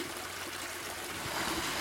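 Water trickles and splashes in a steady, continuous stream from the holy spring of Saint Mitrophan at a Baptist church, as people fill the consecrated water into large canisters; moderately loud with no voices.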